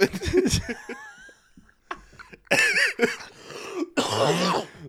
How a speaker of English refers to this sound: Right, the cough that did it.